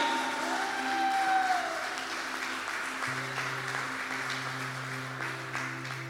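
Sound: audience applauding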